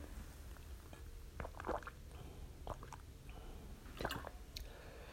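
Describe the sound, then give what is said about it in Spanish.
Someone takes a few quiet sips of water, with soft wet gulps and mouth sounds spaced over several seconds against a faint background hum. No one speaks. “Sí, discúlpeme tantito mientras tomo un poco de agua.”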